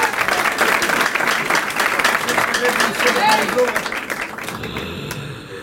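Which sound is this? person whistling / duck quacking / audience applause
audience applause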